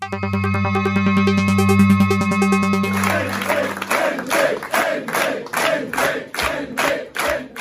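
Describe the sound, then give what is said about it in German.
A large crowd cheers loudly for Minister-President Hendrik Wüst at the CDU election party on Sunday, first over sustained, droning music or chanting, then breaking into steady, rhythmic clapping in unison with whoops and shouts. “Das war der Jubel für Ministerpräsident Hendrik Wüst auf der CDU-Wahlparty am Sonntag.”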